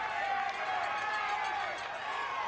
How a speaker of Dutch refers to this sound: Rustig aan, roepen de Nederlandse supporters daar.